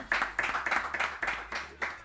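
Applause with sharp, rapid claps repeating in quick bursts, fairly close and moderately loud, with no talking over it.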